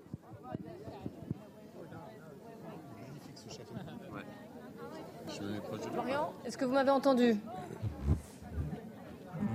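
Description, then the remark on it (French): A dense crowd at a royal visit by the King in Cardiff, Wales, murmurs and chatters throughout, swelling louder toward the end, with a single voice speaking over the babble and a few sharp knocks early on. “qui était dans la foule mais qui a du mal à nous entendre.”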